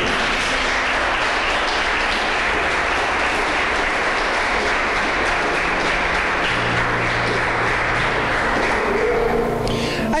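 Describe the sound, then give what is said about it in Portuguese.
An audience applauds God steadily for about ten seconds, a dense, loud wash of many hands clapping, with faint voices mixed in and the clapping thinning near the end. “Ah, irmãos, perdeu a chance de dar um glória agora aí, Perdeu a chance até de aplaudir a Deus, irmão.”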